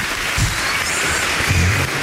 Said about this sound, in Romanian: Și încă o dată aplauze celor care au contribuit la această știre. Bravo România!